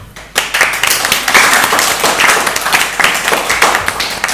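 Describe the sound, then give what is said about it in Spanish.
A group bursts into applause for the class Quinto B of a school, dense overlapping claps forming a steady, loud crackle that starts abruptly and keeps going for several seconds without any talking. “y toda la gente de Quinto B del Colegio de Gran Un saludo y un aplauso para vosotros.”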